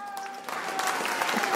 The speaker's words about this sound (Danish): Stor bifald herfra. Sådan lød det i weekenden, da et af de største indsamlingsshows i Danmark, Danmarks indsamlingen, løb af stablen, hvor der i alt blev samlet 101 millioner kroner ind til coronakrisens børn.